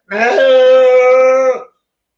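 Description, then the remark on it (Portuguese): A voice imitates the signal call of something shaped like a berrante (cattle horn), with a single loud, sustained note held for about a second and a half, steady in pitch after a slight rise at the start, then silence. “Eu vi uma que tinha um aspecto de um berrante.”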